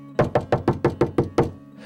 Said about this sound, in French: Il se lève et frappe à nouveau à la porte, mais cette fois, de toutes ses forces.